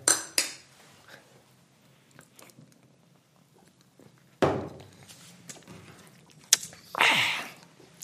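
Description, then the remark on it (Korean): Metal beer cans of Samuel Adams Boston Lager clink together in a toast, a few sharp bright knocks with clattering and rustling in between, followed by a louder burst of clinking and handling noise near the end. “자, 짠하겠습니다. 짠!”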